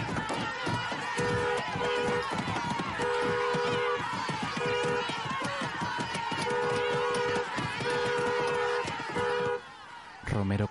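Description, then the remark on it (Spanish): A crowd shouts angrily while fists thump on a car, as the driver honks the horn in repeated bursts to push through the group, which gives way; the noise cuts off near the end. “El grupo cede mientras grita y golpea el coche con rabia.”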